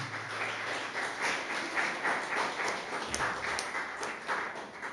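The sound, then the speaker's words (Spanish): A church audience applauds its Lord steadily, a dense wash of many hands clapping at once with no voices, holding an even, moderate loudness across the whole stretch. “Pueden aplaudir a su Señor.”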